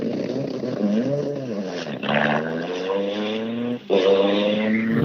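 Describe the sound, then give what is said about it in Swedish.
Marcus Thurin's race car engine runs loud at a Swedish championship (SM) race, its pitch rising and falling unevenly through several revs, with a brief stumble and dropout before it picks up again. “På varv lät det lite bättre, men någonting är det.”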